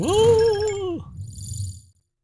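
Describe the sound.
A loud voice imitates Kermit the Frog cheering "Yay": one strained, nasal, drawn-out cry lasting about a second, which sweeps up and then drops off, followed by a brief low rumble.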